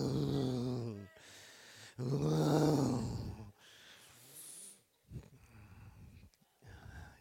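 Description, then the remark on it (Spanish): A church audience imitates lion roars: two loud, drawn-out growling roars, followed by quieter, rougher growls and crowd noise that fade in and out. “No importa lo que sea, no importa lo que se levante, todo a una, tenemos que rugir como leones.”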